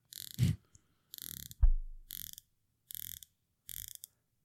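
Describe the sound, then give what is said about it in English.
Dive watch bezel ratchet clicks, crisp, in five short bursts of rapid clicking with brief pauses between, plus a dull knock partway through, as the 60-click bezels of a Foster and a Pelagos 39 dive watch are spun back to back. No one speaks. “I want to spin them back to back because this is really good on the Foster.”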